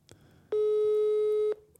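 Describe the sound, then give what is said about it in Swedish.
A single steady electronic phone tone sounds for about a second, loud and clear with a slightly tinny speakerphone quality, as a call rings out, surrounded by quiet room noise. “Jag ringer han på högtalare här.”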